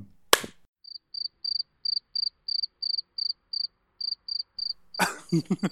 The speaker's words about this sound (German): Warte, ich klatsch mal, damit du es gut einschneiden kannst. Ja, klatsch du mal.